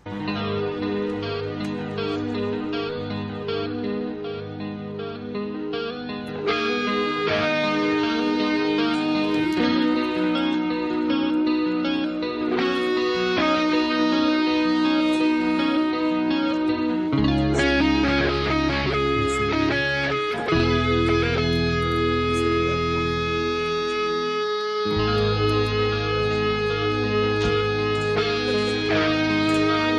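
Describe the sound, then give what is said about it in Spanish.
A loud heavy metal song intro plays with dense, sustained guitar chords, deep booming low notes that shift and swell partway through, and no voices. “que ya muchos se los comenzó a poner la piel de gallina al escuchar esa introducción icónica, mítica de la banda llamada.”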